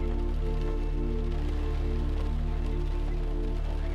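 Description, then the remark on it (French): Steady rain falls continuously with a soft, dense patter throughout, over a constant low humming drone. No voices are heard. “Concentrez-vous sur le bruit de la pluie.”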